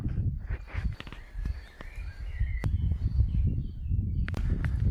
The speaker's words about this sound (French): Voilà donc là on entend on entend des petits bruits de pas, des petits, bruits de feuilles. Justement le blaireau qui est en train de sortir, voilà, qui est en train de montrer le bout de son nez, son nez tout blanc.